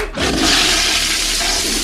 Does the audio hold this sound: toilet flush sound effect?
yes